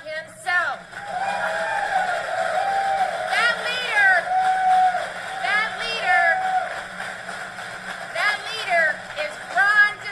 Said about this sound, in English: exuberant, bombastic, happy crowd.